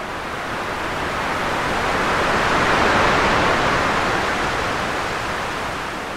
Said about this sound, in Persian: این صدا توی زمان خاصی از چرخه خواب یه سری از افراد پخش شد و به طور مشخص امواج مغزیشون که ثبت میشد رو تحت تاثیر قرار داد و جالب این بود که فرداش که بیدار شده بودن نمیدونستن که صدایی براشون پخش شده موقع خوابشون و این صدا صدای تکرار شونده امواج دریا بود